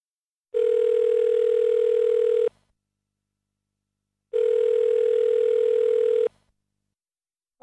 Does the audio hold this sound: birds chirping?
no